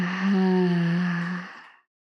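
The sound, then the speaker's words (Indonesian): A single long, voiced exhale through the mouth during a guided breathing exercise, fairly loud, held steady for over a second before trailing off into silence. “Buang nafas dari mulutnya.”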